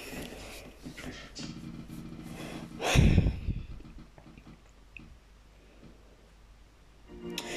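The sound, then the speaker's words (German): A dog, Doggy Dog, smacks its lips, with soft wet clicks and snuffling and one louder snorting burst partway through. No one speaks. “Man hört nur, wie er schmatzt.”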